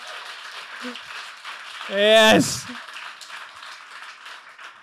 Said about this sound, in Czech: Velký potlesk pro vás teď.